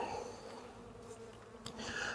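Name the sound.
honeybees buzzing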